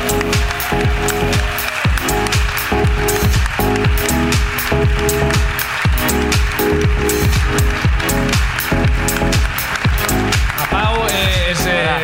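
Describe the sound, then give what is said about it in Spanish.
Steady audience applause welcoming a guest onto the stage in Mallorca fills all twelve seconds, mixed with loud walk-on music that has a thumping, regular beat and sustained tones, with no clear pause. “Eh, lo vamos a recibir en el escenario con un fuerte aplauso.”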